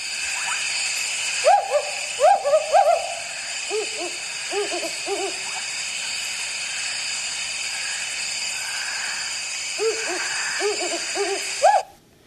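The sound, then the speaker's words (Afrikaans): Two wood owls, a male and a female, hoot back and forth in a duet, one pitched higher than the other, with bursts of rhythmic, bouncing calls separated by a quiet pause, over steady insect-like hiss in the background. “Ek, is, ek was gelukkig om vir 20 jaar 'n broeipaar buite my woonplekkie te hê en so klink die wouduil.”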